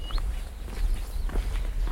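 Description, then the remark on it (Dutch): Steady footsteps of a person walking across a bridge thud along its hollow surface at an even walking pace, over a low outdoor rumble, with a brief bird chirp near the start. “Dan lopen we de brug over richting eh, de driehoek.”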